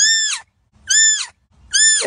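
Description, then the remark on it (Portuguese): Three short, high-pitched bleating calls from a marsh deer, evenly spaced, each a brief loud cry that slides slightly downward, with quiet gaps between and no talking. “Mas ele dá um, um certo um berro bem curtinho, mas que é audível, né?”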